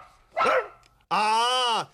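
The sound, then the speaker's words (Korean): A dog named Bokgu barks twice: a short, sharp bark, then after a brief pause a longer, drawn-out bark that rises and falls in pitch. No one talks. “저 강아지 젖줄 시간이라고 갑니다.”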